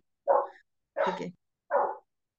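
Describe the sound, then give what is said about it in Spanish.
A small pet dog, one that goes wild at any dog passing by, barks three times in a steady rhythm, each bark sharp and fairly loud, with brief silences between them and no talking. “Sí, tengo un perrito acá que se vuelve loco con los... Cualquier perro que pase.”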